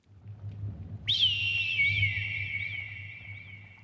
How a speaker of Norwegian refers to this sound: Men gjennom all vinden kunne jeg likevel høre lyden av dem. De hørtes redde ut. Og så, med ett, var det som at alt ble lyst, og jeg hørte en lyd en fuglelyd.